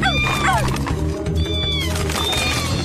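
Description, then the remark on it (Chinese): A cat being given a bath meows loudly several times as it runs off, with high, drawn-out cries that slide downward in pitch, first in a quick cluster and then once more after a pause, over a busy low background. “猫咪不行，别跑！”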